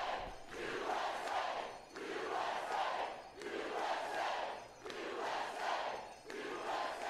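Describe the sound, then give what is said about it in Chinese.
A large crowd chants "USA" in unison at a rally in a park, the loud shouted phrase repeating in a steady rhythm about five times with little pause between rounds. “人们在大喊 “USA USA 美国”。”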